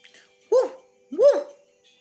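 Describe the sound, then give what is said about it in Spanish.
A dog barks twice, two loud, clear barks about half a second apart, with nothing else in the background. “Por la tarde, al regresar del río, el burrito se encontró con el perro.”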